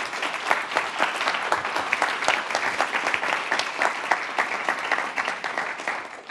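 An audience applauds the panelists of a panel on border safety, a dense wash of many hands clapping at a fast, even rhythm with no voices, holding at a fairly loud level for several seconds.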